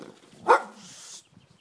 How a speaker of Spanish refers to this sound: Coño, qué susto ha el perro, macho. Casi me da una colleja por detrás de la valla.